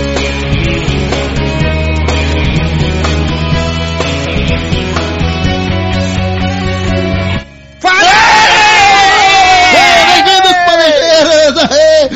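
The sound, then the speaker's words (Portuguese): Steady music plays for several seconds, then cuts out briefly before a loud burst of many guests screaming and yelling together, overlapping and wavering in pitch until the end. “mais gritos convidados de plantão.”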